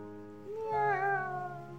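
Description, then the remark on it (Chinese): A single drawn-out cat meow, rising in the middle and then sliding down, heard on its own with no talking, moderately loud with a bright, slightly wavering tone. “哎，小喵嘞，都跑去哪里了？在哪？快出来！”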